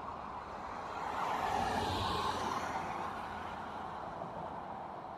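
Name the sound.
car traffic noise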